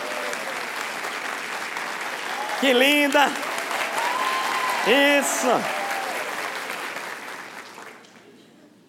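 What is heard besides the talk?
audience applause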